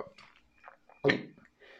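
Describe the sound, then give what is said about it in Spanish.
A person mimics with their voice the gulp of a cat swallowing a pill: one short, loud, throaty burst near the middle, surrounded by softer mouth and breath noises. “Ya que sientas que glute que le hace como”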